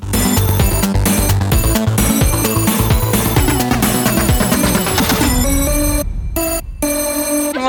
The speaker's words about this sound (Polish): Podoba wam się? Tak. tak. Jest taki inny. Strzelający trochę, no tak by orzeźwił tą całą... nasze rymy. Orzeźwiający szkolny dzwonek.